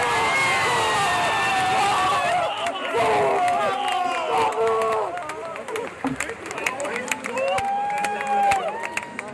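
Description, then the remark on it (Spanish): A large crowd in a velodrome roars and cheers continuously as a Spanish rider wins bronze in the kilometre event at the track cycling world championships in Paris, with excited shouting voices rising above the din and scattered sharp claps cutting through, loud throughout. “ese era el momento en el que el español Alejandro Martínez conseguía algo histórico conseguía la medalla de bronce en la prueba de kilómetro”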